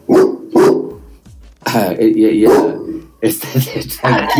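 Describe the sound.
A dog barks twice in quick succession, loud, followed by more drawn-out vocal sounds as a person speaks to the dog.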